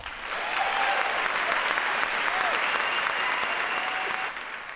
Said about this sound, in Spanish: Como novedad, en Sarpanet hemos lanzado la primera newsletter. ¡Bien, bravo! ¡Aplausos!